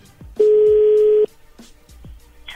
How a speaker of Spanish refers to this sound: A ver, permíteme, se está marcando de nuevo.